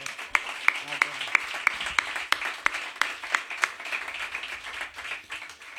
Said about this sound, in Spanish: Un aplauso para Germán.